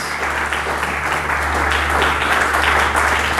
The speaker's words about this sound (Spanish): Y pueden aplaudirle fuerte al Dios que es el Dios de las familias.